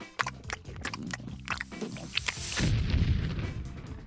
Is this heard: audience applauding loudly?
no